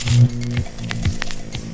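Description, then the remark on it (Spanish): A vacuum tube amplifier hums after switching on: a steady, low electrical drone with buzzing overtones, dotted with faint crackles and ticks, fairly loud and with no one talking. “Bulbos encendidos.”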